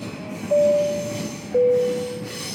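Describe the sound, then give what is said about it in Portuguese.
A train rolls along the rails with a steady low rumble, broken by two drawn-out, high metallic wheel squeals in quick succession. No one speaks. “Próxima estação.”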